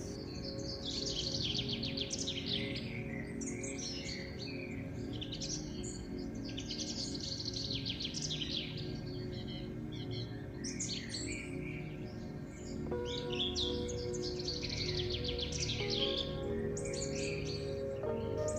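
Continuous birdsong in a pine forest, many overlapping chirps and trills, bright, running steadily over a soft, sustained ambient drone with no talking.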